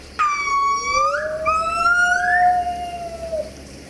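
A gibbon ape's call, loud: a series of rising, siren-like whooping notes that climb and then slide into a long, sweeping tone over a faint background hum.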